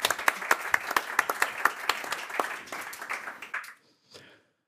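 An audience applauds a newly introduced stage guest with dense, crackling claps and a few sharper individual hits, holding steady for about three and a half seconds before cutting off, followed by a brief faint murmur.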